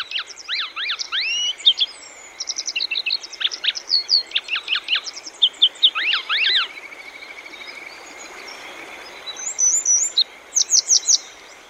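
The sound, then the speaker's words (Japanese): A grey wagtail perched on a rock by a stream on the Boso Peninsula, Chiba Prefecture, Japan, during a break in the rainy season, sings in quick bursts of sharp, high chirps and trills, with short pauses between phrases, over a steady rushing hiss of flowing water. “房総半島（千葉県）のキセキレイ”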